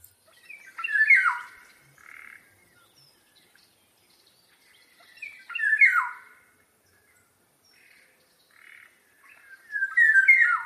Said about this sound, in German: Der Pirol ist Vogel des Jahres dieses Jahr oder lateinisch Oriolus Oriolus. Ja, und der Pirol, den finde ich richtig schön. Ich habe mir den ja vorhin ja. schon angehört, also pass auf, Klar. der klingt so.